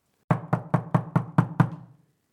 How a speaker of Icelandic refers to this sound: hér er verið að banka